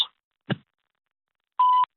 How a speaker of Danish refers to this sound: Du kan lægge en besked efter tonen eller sende en sms.